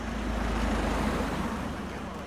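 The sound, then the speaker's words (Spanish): A steady engine rumble and road roar from inside a car driving along a mountain road, Route 186 in Canóvanas, continuing evenly without a break. “Conducimos siguiendo el camino de la montaña.”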